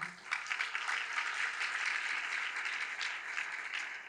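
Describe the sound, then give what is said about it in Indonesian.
An audience applauds the Lord steadily, many hands clapping in a dense, crackling wash that holds at an even, fairly loud level for the whole stretch, with no voices standing out. “Berikan dulu tepuk tangan bagi Tuhan.”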